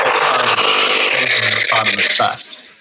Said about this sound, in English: What the fuck was that noise? that was like a moped, a high speed. oh shit!